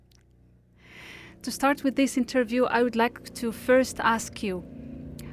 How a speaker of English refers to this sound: and sorry for the noise because we are in the studio, there is a helicopter passing by.